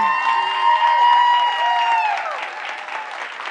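An audience applauds and cheers with loud, dense clapping and scattered whoops and shouts, the cheering voices rising and falling over the steady patter of hands.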